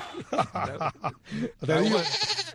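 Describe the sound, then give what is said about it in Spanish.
A young goat bleats, several short wavering cries followed by a longer, quavering bleat, loud and nasal. “el cabrito que salió”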